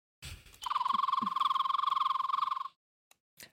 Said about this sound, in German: Habe ich dich schon mal gefragt, ob du weißt, welcher Vogel das ist? Rotbauchfliegenschnepper. Das ist absolut richtig.